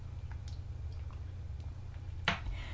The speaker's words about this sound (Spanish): voy a revolver, hago el chin chin o cortinilla musical de este programa y de paso refresco un café recién colado